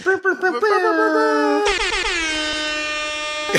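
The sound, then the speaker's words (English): A loud, sustained air horn blast blares for about two seconds, steady and piercing. It follows a brief stretch of wavering, tonal vocal sound. “yeah, like an air horn.”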